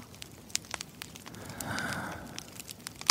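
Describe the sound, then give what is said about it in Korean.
A fire crackling steadily in a fireplace, with sharp irregular pops and snaps over a soft low rumble of burning, swelling slightly in the middle before a loud pop at the end. “벽난로도 있네 조금만 가까이 가볼까?”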